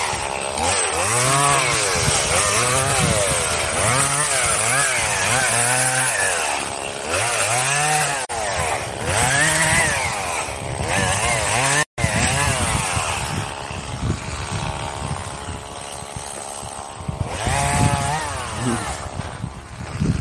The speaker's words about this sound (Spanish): ¿Te animas con la motosierra?